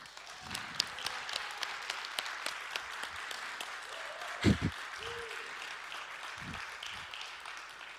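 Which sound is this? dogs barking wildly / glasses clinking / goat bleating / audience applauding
audience applauding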